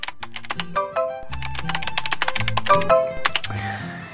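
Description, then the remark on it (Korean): Rapid computer keyboard typing by two coworkers chatting with each other by text while working overtime in an office, a dense run of clicky keystrokes in quick, uneven bursts, fairly loud, with no voices. “둘이 채팅으로 떠드는 소리였죠.”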